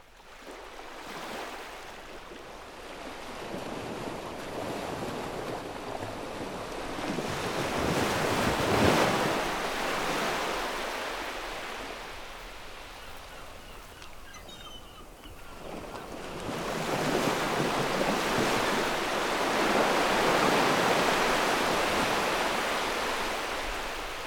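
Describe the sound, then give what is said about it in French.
Waves break on the beach of la Roche-Percée on 8 December 2017, in loud, hissing surges that swell and recede, with a big crash around the middle and another long wash of surf later, over steady wind rumble. No one speaks. “sur la plage de la Roche-Percée, 8 décembre 2017.”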